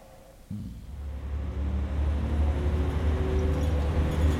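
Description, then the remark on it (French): A bus engine starts up after a brief pause and keeps running in a steady, low drone, moderately loud, with a faint higher whine on top and no voices. “J'ai été réveillée par le bruit régulier du moteur.”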